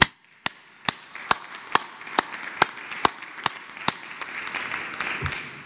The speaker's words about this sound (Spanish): Un aplauso al pueblo de México.